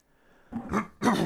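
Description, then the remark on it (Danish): A raspy throat clearing followed by a short, forceful cough, both loud, with no talking around them. “Jeg hoster lige af her”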